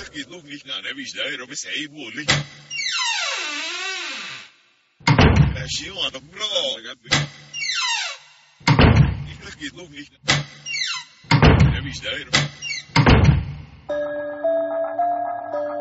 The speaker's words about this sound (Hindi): अपने कमरे के बाहर उसने एक आवाज सुनी दरवाजा खोला तो बाहर कोई नहीं खड़ा था इसे अपना वहम समझकर जैसे ही उसने कमरे का दरवाजा बंद किया